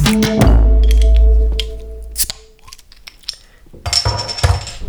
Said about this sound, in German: Dafür war das Ablegen von dem Öffner ganz schön laut. das hat bestimmt schön in den Ohren geklingelt.